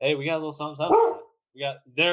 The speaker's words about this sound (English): If you got an unruly dog, you can hear him in the background.